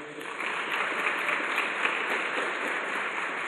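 A crowd at a church gathering applauds steadily for a speaker, a dense wash of many hands clapping at an even level for a few seconds with no voices standing out.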